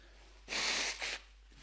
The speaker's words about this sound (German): Und dann Ganz kurz Nase putzen.